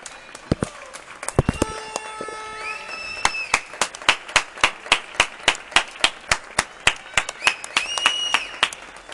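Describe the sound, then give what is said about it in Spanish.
Rhythmic applause of sharp, evenly spaced claps building into a steady beat, with a few high, sustained electronic-sounding tones sliding in near the start and again toward the end. “Bueno, pues empiezan los aplausos.”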